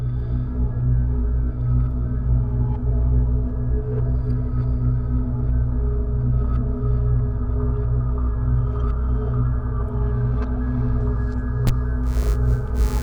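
Dense, droning musical notes played in reverse, swelling and blurring together into a steady, loud wash of low tones that hums on without pause and with no voices.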